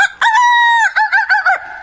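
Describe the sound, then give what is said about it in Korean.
A woman performing a party-trick impression mimics an egg-laying hen: one long, loud, drawn-out squawk followed by a quick run of three or four clucking bursts, all clear with no other sounds. “이거는 닭 소리인데. 와. 이건 알 낳는 닭 우와.”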